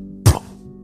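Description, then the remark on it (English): A single heavy, muffled thud of a body that was shot falling onto the ground hits suddenly with a deep low impact and fades within a moment over a quiet low hum. “fall to the ground.”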